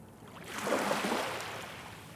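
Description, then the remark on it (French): Waves breaking against a jetty in the small port behind Malo, Dunkirk, France, under a grey sky: a broad rushing wash that swells up and then keeps hissing steadily. The sound is moderately loud, with no voices. “Des vagues sur une jetée.”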